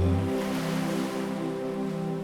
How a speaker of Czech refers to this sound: V našem životě neseme mnoho věcí, které nás tíží a které je dobré čas od času pustit nechat je smít těmi pomyslnými vlnami, které již slyšíš v pozadí hudby.